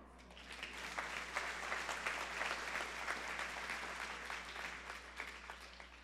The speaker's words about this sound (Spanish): Ese es buen aplauso, ¿no?